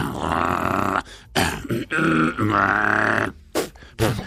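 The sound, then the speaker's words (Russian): A man's voice imitates the engine of a five-ton truck with loud, growling, throaty revving in several bursts, each lasting up to about a second, separated by short pauses. “Значит, сооружал такой автомобиль и издавал такие звуки.”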